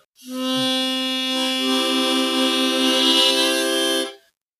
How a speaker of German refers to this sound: Vielleicht ist das aber auch halt, als einfach, wenn man die 1, 2 und 3 trifft, immer da hat man halt wirklich so richtig schön einen Zugton.